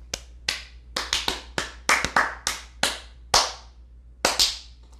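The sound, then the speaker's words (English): A brief round of applause from an audience welcoming a guest, made of sparse, crisp handclaps, about fifteen sharp claps at an uneven rhythm, fairly loud, with no voices over them. “But uh, for now, please give a warm round of applause for Mildred Jorgensen.”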